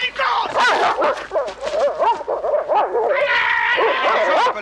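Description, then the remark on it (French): A dog barks and yips excitedly in rapid, repeated bursts during attack training, loud, with a man's voice talking over it throughout. “Rappelez votre chien, rappelez-le.”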